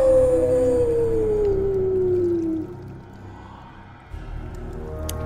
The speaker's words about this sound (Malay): Jadi bila dah dengar bunyi anjing tu, saya lari cepat-cepat.